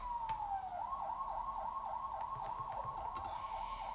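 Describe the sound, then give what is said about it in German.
An ambulance siren in a video game opens with a falling wail, then switches to a rapid, repeating yelp that holds steady and fairly loud throughout, with no voices over it. “Police hat einen Einsatz. Ne, Krankenwagen.”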